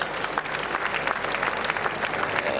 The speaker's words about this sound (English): Brethren, praise the Lord! Hallelujah. Once again, let's clap for wonderful Jesus Christ.